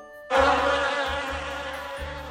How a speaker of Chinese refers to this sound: 一阵很吵的声音打断了他们的谈话，听起来像是一只大蜜蜂。赛弗走近一看，原来有一位长着大翅膀的女巫在花丛里忙碌着。